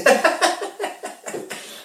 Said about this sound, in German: Ist also jemand hustet?